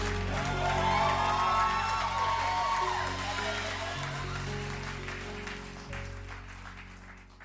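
An R&B song played on the Apex Radio Hour on KSUU Thunder 91.1 winds down to its final sustained chords while a crowd applauds and cheers, the whole sound gradually fading quieter over several seconds.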